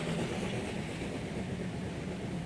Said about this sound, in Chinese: 缅甸仰光的环城火车。